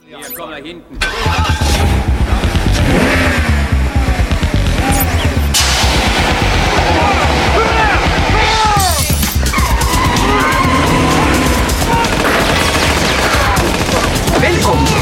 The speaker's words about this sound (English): It got it got too far, but Tomorrow Never Dies, 1997. We had the remote control driving car.